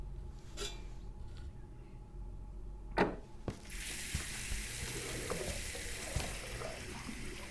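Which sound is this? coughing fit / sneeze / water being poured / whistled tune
water being poured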